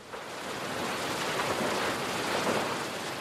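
A steady, unbroken roar of waterfalls, heard from a bed, a dense hiss spread across low and high tones at an even loudness throughout, with no voices or other sounds.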